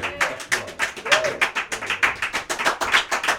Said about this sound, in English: It's good to clap before I sing, because just in case I screw up later.